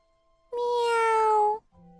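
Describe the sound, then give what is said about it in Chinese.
One long, loud meow from a small white cat, held at a steady pitch for about a second and ending abruptly, with a short, quieter tone just after it. “喵！哎，是一只小白猫。”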